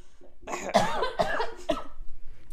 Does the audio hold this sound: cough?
yes